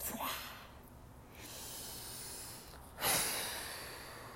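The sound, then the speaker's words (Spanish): A forceful exhale through the nose, a sharp breathy rush of air that fades into soft hissing. A lighter breath comes first, then one strong blast. Fairly quiet, with no talking. “Y cada que te acuerdes de algo que no quieres en tu vida, exhala lo fuerte.”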